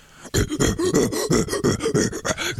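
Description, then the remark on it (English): A voice imitates Tim Allen's signature grunt, a rapid run of about a dozen short, loud guttural bursts, with no talking. “the impression of Tim Allen”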